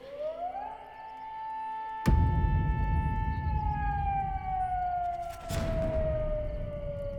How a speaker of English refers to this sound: Toru heard a sound that made his blood run cold an air raid siren